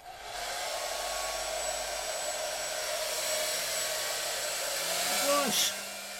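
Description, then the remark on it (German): A hair dryer, pointed at a person, blows steadily and loudly from start to finish, a constant whooshing whir with a humming motor tone, briefly joined by a short squealing whine near the end. “Es ändert nichts, wenn du mit dem Föhn auf mich zeigst.”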